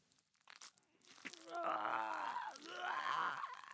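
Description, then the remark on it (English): Wet, crunching bites tear into a man's throat as a dog and a man sink their teeth into his jugular, followed by a rising, strained groan that swells and wavers as the chewing sounds continue beneath it. “as his dear old son and bastard befriended hound sank their jagged teeth into the fleshy pulp of his pulsating jugular.”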